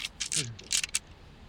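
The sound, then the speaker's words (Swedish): A handful of ten dice, rolled for a parry in a game, clatter and rattle in a few quick bursts over about a second, fairly loud, with a brief voiced murmur mixed in. “Jesus Christ, det där är en hel jävla handfull. full Tio tärningar, vad kör vi?”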